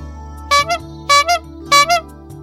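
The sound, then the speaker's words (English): An ice cream truck's jingle plays a short two-note chime phrase three times in a steady rhythm over a low, humming backing tone, fairly loud, with no talking. “Do you hear the ice cream truck?”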